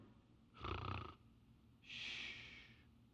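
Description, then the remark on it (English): A voice imitates snoring: one rough, rumbling inhale followed by a breathy, hissing exhale, moderately loud, with no talking. “But here he's snoring.”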